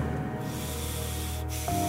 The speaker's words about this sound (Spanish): En ese segundo que escucho esa respiración no sabía muy bien con qué recuerdo me estaba conectando, pero no era grato. Se me puso la piel de gallina.